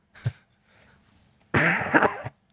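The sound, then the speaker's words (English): A brief sharp catch of breath, a quiet pause, then one loud, explosive sneeze with a harsh, breathy burst lasting under a second before cutting off. “Bless you.”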